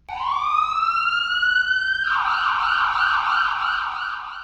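An approaching ambulance siren sounds loudly on its own, one long rising wail sweeping upward in pitch, then breaking into a rapid, warbling yelp that pulses steadily to the end.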